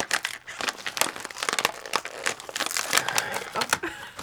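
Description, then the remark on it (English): A plastic bag of crunchy garlic kale snacks crinkles and crackles continuously for several seconds, with irregular bursts of sharp rustling as someone struggles to tear it open. No voices. “I'm struggling to get that sucker open. I'm open the outside of the bag here.”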